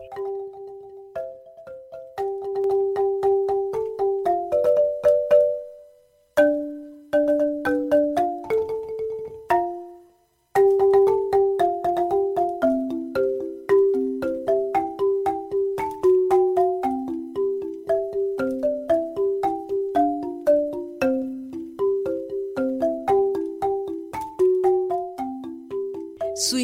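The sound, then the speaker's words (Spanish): A marimba, played at home, plays a lively Pacific-region piece: a melody of quick struck notes over a lower accompanying line, with bright, briefly ringing tones and two short pauses. No one speaks. “pues desde casa voy a estarlos complaciendo con muchas piezas del Pacífico para que al menos los que pensaban ir estar desde los más de 100 mil espectadores diarios, sí.”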